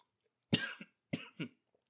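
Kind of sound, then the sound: human body sound, coughing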